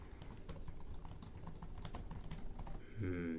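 Rapid, dense clatter of keys on a computer keyboard, typed frantically in a continuous burst, ending with a brief tonal chime-like sound near the end.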